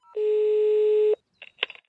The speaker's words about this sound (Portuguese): Ela tinha um, um interfone, né, da, da portaria, dá pra ligar lá. E o telefone tocou.